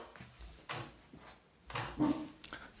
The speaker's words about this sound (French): Ah, j'ai fait, tomber quelque chose et mon chien crie. Voilà ce qui se passe.